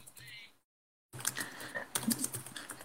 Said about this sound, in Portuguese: Olha só, você tá só bateu na máquina de datilografia aí, né?